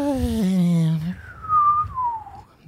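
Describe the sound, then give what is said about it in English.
A person imitates the little nose whistle a small green dragon makes while sleeping: a short hummed tone, then a thin, high whistle that glides slowly downward, fairly soft. “And when he sleeps, sometimes he does this little nose whistle.”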